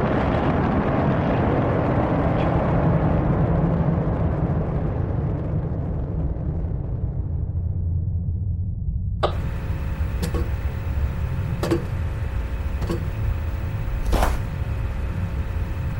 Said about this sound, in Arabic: This is Apollo Saturn launch control. We passed the six-minute mark in our countdown for Apollo 11, the flight to land of the first men on the moon. 12, 11, 10, 9, ignition sequence start, 6,